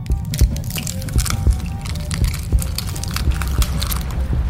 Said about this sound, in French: Puis, au bout de quelques secondes, ce qu'il entendit le fit sursauter. L'œuf était en train de s'ouvrir, tout doucement.